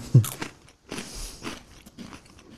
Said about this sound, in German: Ich glaube, die Hörer genießen gerade tatsächlich das Knuspern von dir ein bisschen, weil wir sind wieder am Essen.